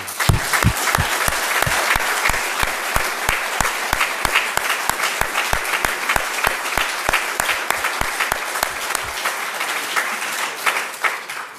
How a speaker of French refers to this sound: Euh, je vous propose de les, de les applaudir.